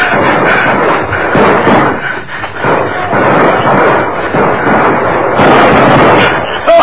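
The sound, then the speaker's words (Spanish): Heavy gunfire from the soldiers of Captain Salazar crackles and booms in a dense, almost continuous barrage, loud throughout the whole stretch with sharp bursts blending into one another. “Son los soldados. ¿No ves cómo tiran?”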